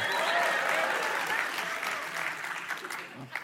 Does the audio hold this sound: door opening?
no